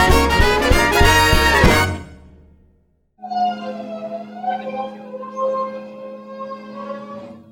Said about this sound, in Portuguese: Que barulho é esse? É o caminhão de lixo na minha rua.